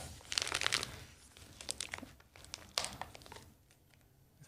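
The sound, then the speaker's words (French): Paper crinkles and crunches as a taped gift package, wrapped by a bookseller, is pulled open in several quick irregular bursts of rustling and tearing with brief pauses between, over a quiet background. “C'est pas toi qui as fait les paquets Non, pas celui-là.”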